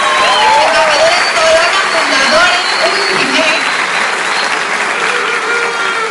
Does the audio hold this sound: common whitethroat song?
no